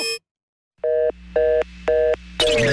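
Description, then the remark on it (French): A telephone line tone pulses three times in even, regular beeps over a steady electronic hum, with no one picking up, ending in a sudden burst of line noise. “Je parle à une sonnerie de téléphone qui me dit qu'il n'y a personne au bout du fil.”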